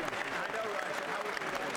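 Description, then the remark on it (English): Steady, dense applause from a large crowd in a chamber, clapping from both sides for President Trump at his speech, a continuous wash of many hands clapping at once with no pauses, fairly loud and even throughout, with faint voices mixed in underneath. “Traditionally, even if, I mean, we've never had a president historically as radical as Trump, uh, but uh, it looks like uh, everyone's clapping for him as they normally do.”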